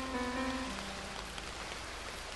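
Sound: heavy rain falling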